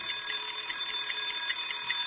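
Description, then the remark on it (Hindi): The Red FM 93.5 radio hand wash alarm rings continuously with a bright, metallic, rapidly pulsing tone, steady and fairly loud throughout, with no voices, marking the start of 20 seconds of handwashing. “red F का hand wash alarm care करो ना अगले 20 सेकेंड हाथ धोना”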